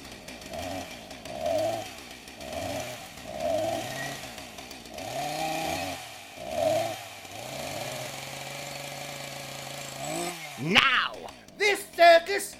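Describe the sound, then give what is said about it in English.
Three chainsaws, fired up by Fatima the ballerina to juggle on a tightrope at a show, sputter and rev in a rhythm of rising and falling bursts, settle into a steady drone, then end with a few sharp, loud rattling surges. “As you can see, high above my head on the tightrope, Fatima the ballerina is about to juggle three chainsaws. Fire them up, Fatima, love.”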